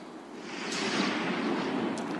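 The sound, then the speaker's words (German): A steady, roaring rush of howling wind with rough, churning water under dark clouds, swelling slightly louder partway through and holding as a dense, continuous wash of noise. No voices are heard. “Der Wind heult, das Wasser wird rau.”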